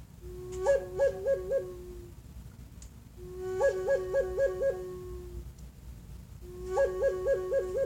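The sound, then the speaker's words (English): A wolf howls three times on top of a mountain, each call a steady mid-pitched tone breaking into a quick wavering warble before trailing off, clear over a low, rumbling background. “You hear on the top of the mountain, you hear a, a wolf.”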